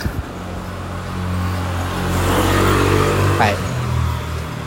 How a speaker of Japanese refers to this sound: あちょっとまたバイクが来たわ